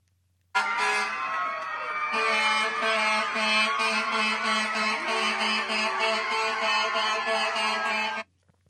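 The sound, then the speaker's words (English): Sirens and horns of a line of fire trucks outside New York University Langdon Medical Center blare loudly and continuously for several seconds, layered over a dense roar of cheering from a large crowd for medical professionals, then cut off abruptly. “They blared their sirens. They had a standing ovation in gratitude for these medical professionals”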